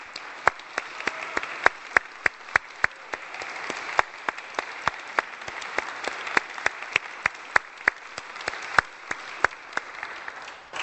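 A room full of people applauds steadily in appreciation of the staff, a dense wash of clapping with sharper individual claps popping out, sustained at moderate level for about ten seconds without any voices.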